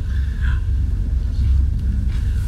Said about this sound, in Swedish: Är det så också att i den här miljön, alltså där vi är lägre ner, där hör vi också tydliga dunket av motorn. Och, mm. Alltså det är högljutt på det sättet.